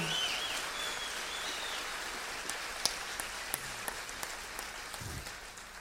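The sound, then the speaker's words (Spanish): A concert audience applauds a trumpeter in a steady, dense wash of clapping that slowly thins out, leaving a few louder individual claps popping through toward the end. No one speaks. “O sea que creo que se merece triple ovación.”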